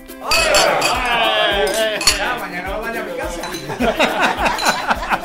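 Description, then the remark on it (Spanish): A busy restaurant dining room and terrace filling up with diners, full of overlapping chatter, with frequent light clinks of cutlery and dishes scattered throughout at a steady, moderately loud level. “porque el comedor y la terraza se les están llenando”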